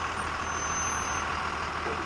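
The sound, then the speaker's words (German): A bus pulls up as everyone boards, its engine rumbling under a steady, loud hiss of air brakes, with faint high tones in the background and no voices. “Der Bus kommt und alle steigen ein.”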